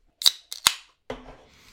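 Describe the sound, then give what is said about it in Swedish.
A can of Strawberry Pie beer is cracked open: a few sharp metallic clicks from the tab, then a pop and a steady fizzing hiss that lingers and slowly fades. No one speaks. “Alltså det luktar ju, alltså det, det doftar ju verkligen paj när man öppnar burken.”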